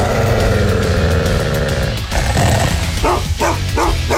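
An angry Belgian shepherd barks loudly, a quick run of sharp barks over a dense, rumbling background, with the barking getting faster toward the end.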